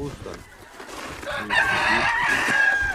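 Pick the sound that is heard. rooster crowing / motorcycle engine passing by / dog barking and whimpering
rooster crowing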